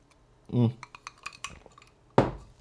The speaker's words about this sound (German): Ihr hört immer die, Eis, die Eiswürfel rascheln. Ich denke, wenn, wenn kurz Stille ist und diese, dieses Rascheln kommt, dann wisst ihr, dass ich trinke.